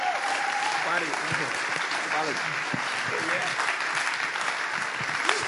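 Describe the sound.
A large crowd applauds loudly and steadily, a dense wash of clapping that fills the whole moment, with faint voices and cheers mixed in beneath it.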